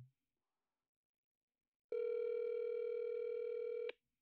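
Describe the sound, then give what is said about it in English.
After a moment of silence, a single steady electronic ringback tone sounds for about two seconds, clear, like an outgoing phone call ringing with no answer. No one speaks. “Answer your phone.”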